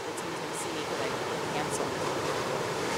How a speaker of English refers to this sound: I, I, I got the ocean is really much louder than you.